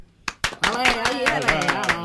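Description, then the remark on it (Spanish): Sharp hand claps land in a steady rhythm, about every quarter second, while a voice sings or vocalizes over them at a moderate level. “Así, deja pasar ese taxi, porque un metro triunfal merece un aplauso más. ¡Dale!”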